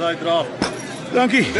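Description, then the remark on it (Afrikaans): A single bright, short clink of glasses touching in a toast, in a brief pause between people talking. “Gesondheid. Cheers.”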